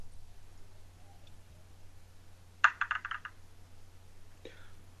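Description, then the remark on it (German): A short clattering burst of dice tumbling and settling on a hard surface, a quick cluster of sharp clicks that dies away, with a low steady hum underneath and a faint click afterward. “Super, dann würfel doch mal.”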